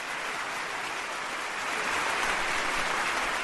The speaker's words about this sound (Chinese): 可以了，可以了，可以了，别鼓，别鼓掌了。